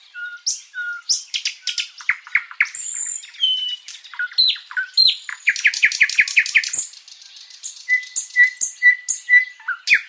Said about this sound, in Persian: توی کنفرانسی توی آمریکا صدای یه بلبلی رو در واقع ضبط کرده بود با خودش برده بود که وقتی میخواست در رابطه با تحریر بلبلی توضیح بده اول اینو پخش کنه بعد اون تحریره رو بذاره و اینطوری نشون بده که چقدر توی این تحریر بلبلی از خوندن این پرنده